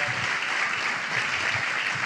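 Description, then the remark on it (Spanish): An audience applauds the Lord steadily, a dense, continuous wash of many hands clapping at an even loudness for the full two seconds, with no voices standing out. “Pero ah, démosle fuerte el aplauso al Señor porque...”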